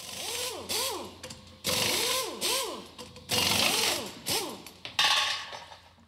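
A pneumatic tool, powered by a compressor forcing compressed air through a tube, runs in a series of short bursts, its high whine rising and falling in pitch over a loud hiss of air, with no voices.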